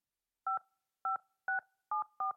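telephone keypad dialing tones

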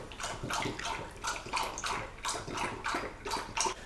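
pet lapping drinking water

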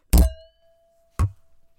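drinks clinking together

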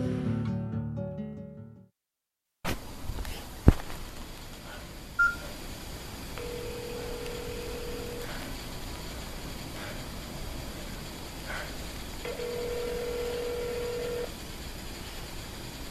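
telephone keypad dialing tones

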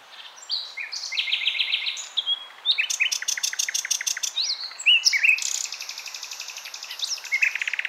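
common nightingale song

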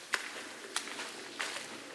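footsteps approaching

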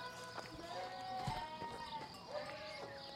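sheep bleating

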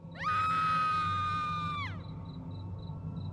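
woman's shrill scream

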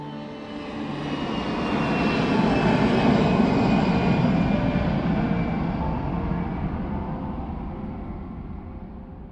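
airplane engine drone

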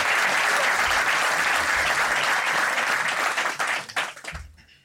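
audience applauding loudly

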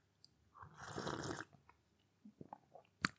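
sipping tea

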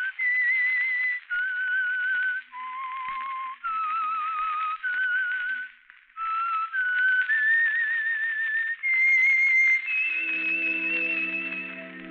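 whistled theme tune

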